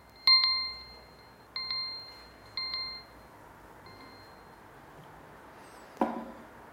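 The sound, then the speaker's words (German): A small bell rings three times in a steady pattern to end a meditation, each bright ding decaying with a clear metallic tone, followed by a soft knock or tap near the end, otherwise quiet. “Und in ungefähr fünf Minuten wird es klingeln und dann dürft ihr wieder aufwachen.”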